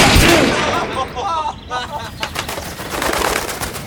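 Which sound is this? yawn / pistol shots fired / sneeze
pistol shots fired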